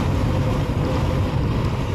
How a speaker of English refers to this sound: Yes, my windows are down. It is going to be windy.